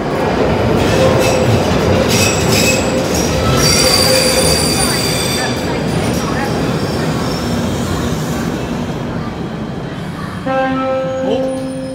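A loud London Underground train rumbles through a station, its wheels squealing with high metallic whines over steady roaring noise that eases slightly before a brief tonal sound near the end.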